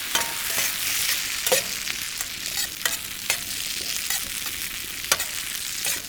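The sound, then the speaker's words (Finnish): Chopped lamb and other ingredients sizzle steadily in a frying pan at a campfire site on a dark evening at Lakijärvi campground, a continuous hiss broken by sharp clicks and scrapes of stirring. No one speaks. “jos sä laitat ton pastan kiehumaan, niin mä pilkon, pilkon sen karitsan vähän pienemmäksi ja aloin sitten paistinpannulla näitä muitakin aineksia paistamaan.”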